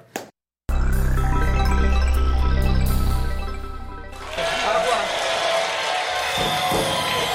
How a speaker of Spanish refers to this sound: Venga, pues muy bien. que vengan unos aplausitos.